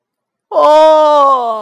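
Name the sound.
bear yawning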